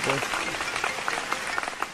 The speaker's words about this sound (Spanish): Otro aplauso